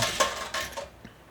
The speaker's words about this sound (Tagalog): Kung naririnig nyo ang agos ng tubig at ang tunog ng ating baso't pinggan.